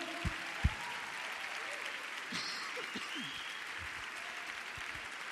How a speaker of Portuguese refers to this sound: Vamos, não para de aplaudir não. Vamos para de aplaudir não, meu irmão. Bora. Aplauda, querido. Aplauda, aplauda, aplauda.